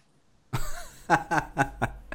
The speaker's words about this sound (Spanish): me va a volver la, tos, me va a volver, voy a tratar de tomar agua.